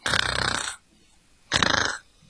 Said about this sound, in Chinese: 但是，哪个家伙竟然睡在他最喜欢的地方呢？原来是小花豹。它的呼噜声十分响亮。